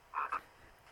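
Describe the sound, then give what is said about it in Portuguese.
Two quick frog croaks, the second right after the first, come from the online video 'Cabrões dos Sapos' being played. They are clear against a quiet background, with no talking. “Cabrões dos Sapos.”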